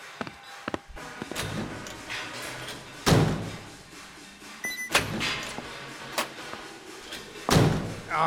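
A door is opened and shut as a person comes back in through it, with latch clicks, creaks and a few solid thumps spread across several seconds, with no talking.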